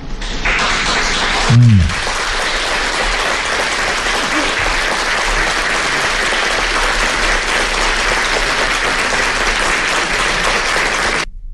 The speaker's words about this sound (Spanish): Ahí está. Bueno, ¿Quiénes aplaudieron? Por supuesto, su flamante hermanito, Martí Batres, el jefe de gobierno de la capital del, del, país.